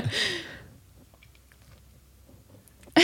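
Soft, quiet chewing of soft chocolate coconut macaroon cookies, with faint moist smacks and small clicks spread over a few seconds, framed by brief louder rustling bursts at the start and end. No talking.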